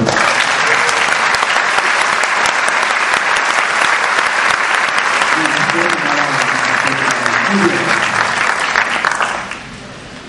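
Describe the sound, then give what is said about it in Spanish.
A live audience of show guests claps steadily and loudly for about nine seconds at the host's request, a dense wash of applause with faint voices mixed in, before it fades out quickly at the end. “Un aplauso ahí, por favor.”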